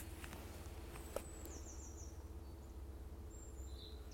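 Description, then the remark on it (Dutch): A thin, high-pitched bird call sounds faintly, a brief whistled note above a steady low rumble, with no voices. “Ik hoorde één hoog roepje.”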